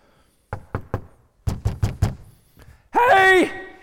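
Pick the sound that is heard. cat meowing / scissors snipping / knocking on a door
knocking on a door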